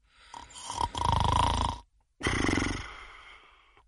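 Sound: voice imitating snoring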